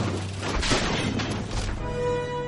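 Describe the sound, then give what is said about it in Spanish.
A car skids on a road in a blizzard as fish rain down onto the road: a loud continuous rush of tire and road noise with rumbling bursts, ending in a sustained high tire squeal over a low engine drone. “Derrapa.”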